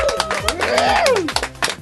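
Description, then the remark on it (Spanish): Steady applause of hands clapping in quick succession, fairly loud, with a rising then falling whistle or cheer sweeping over the claps, as comedian Polo Polo is introduced in a TV studio. “Yo me aplaudí también.”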